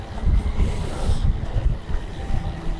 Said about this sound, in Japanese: いや、まあこんな感じで風があったりは結構今日こう強風吹いてるんですけどね。